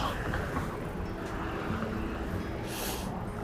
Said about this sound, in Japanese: ここねちょっと車が通るところなんでうるさいとは思いますがご容赦ください